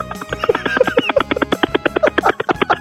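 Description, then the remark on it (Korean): A person imitates a rescue helicopter with their voice in an impression contest on Park Myung-soo's radio show, making a fast, steady chopping pulse of rotor beats that runs loud throughout, with no other talking. “구조를 하러 가는 헬기인데 아, 구조를 한번 해보겠습니다.”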